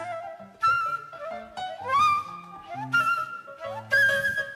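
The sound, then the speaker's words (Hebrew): A whistled imitation of a small bird chirping at the top of a tree in a children's song: a few bright, rising tweets repeated in short bursts, clear, with soft musical accompaniment underneath and no talking. “פתאום בראש העץ קול קטן מצייץ.”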